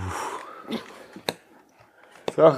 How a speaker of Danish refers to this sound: Så jeg synk vandet. Eller det savlen? Nej, det var vand. Med citrus.